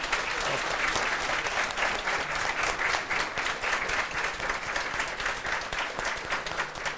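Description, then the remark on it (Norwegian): An audience claps steadily for about seven seconds, a dense, even wash of many hands at a constant loud level with no voices over it, applauding Jonas Gahr Støre at the end of a breakfast meeting. “Du fortjener en applaus for det.”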